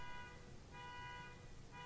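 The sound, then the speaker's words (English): A neighbor's car alarm honks outside, its blaring tone repeating in long steady pulses with brief gaps, heard faintly over a low background rumble. “I think oh, somebody's trying to steal a car.”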